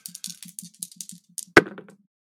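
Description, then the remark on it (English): Dice rattle with a quick run of light clicking, then land in one sharp clatter on a hard surface and tumble briefly to a stop, showing a four. Fairly quiet, with no talking. “That's a four on the dice.”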